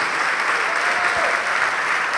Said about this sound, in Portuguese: Vem para cá, vamos aplaudir mais ao nome de Jesus.